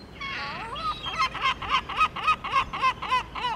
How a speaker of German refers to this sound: Im Fischerhafen von Aveiro kreisen Hunderte von Möwen über den grauen Morgenhimmel.